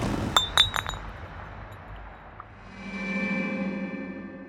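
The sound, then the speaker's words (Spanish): A glass whisky bottle, taken out of a drawer, clinks three or four times in quick succession, bright and ringing, as someone drinks straight from it. A soft low rumble of shifting and handling follows with no voices. “abre la gaveta y saca la botella de whisky. Bebe directamente como un poseso”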